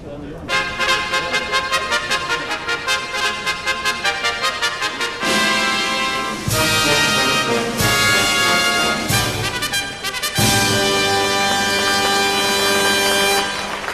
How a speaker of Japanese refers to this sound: 第66回京成杯オータムハンデキャップグレード3重賞勝ち馬10頭を含む16頭の出走ですファンファーレです